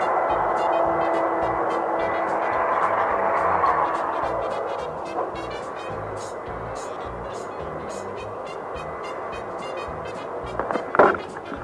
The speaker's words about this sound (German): Ja, jetzt tun Sie den Staubsauger mal ins Wohnzimmer hinüber, ne? Da ist sehr laut